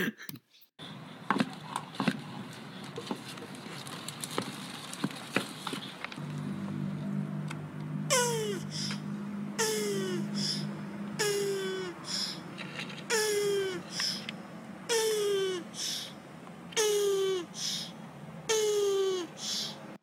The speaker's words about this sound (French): Voilà, j'espère que vous avez apprécié ces doux sons de tortue qui copule.